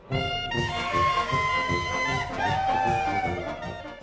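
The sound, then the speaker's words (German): A loud, shrill alpine yodel shout of joy, a Juchatzer, rings out, held for several seconds with sudden yodel-like jumps in pitch, over a faint, busy background. “Ein Ausschrei purer Lebenslust dieser, der Juchatzer”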